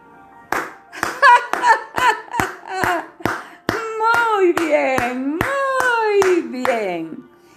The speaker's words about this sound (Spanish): Este comenzó a reír y exclamó batiendo palmas.